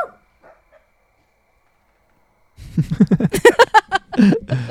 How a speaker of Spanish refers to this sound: Y escucha algo, Jean, que es la, es la Chitsu de Leslie, su perrita. Ella no sabe que es perro, please. No Ella piensa que es una niña,